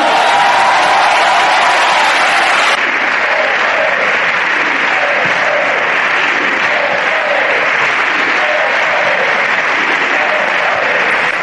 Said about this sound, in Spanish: Pues el triste y moderado PP me da la impresión que lo que no quiere volver a escuchar es esto. Ellos están diciendo que como no salen las cuentas, no quieren escuchar otra vez estos gritos de si se puede